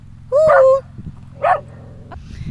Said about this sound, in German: Jetzt ist noch ein anderer Hund hier auf dem Platz, aber das läuft gerade sehr gut. Der geht seiner Wege.